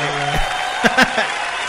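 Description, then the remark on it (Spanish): A steady wash of applause from a crowd for a TV show's floor manager, dense and even throughout, with voices talking over it and a couple of brief louder bursts near the end. “Un aplauso.”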